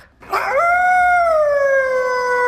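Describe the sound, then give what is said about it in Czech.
A hunting pointer dog lets out one long, loud howl, rising quickly and then holding a steady, slowly falling wail for a couple of seconds, with no voices. “Od té doby se ale po chodbách zámku rozléhaly podivné zvuky, vytí, škrabání a říkalo se, že je na zámku vlkodlak.”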